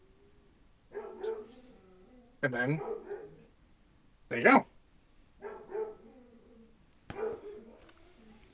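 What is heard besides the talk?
dog barking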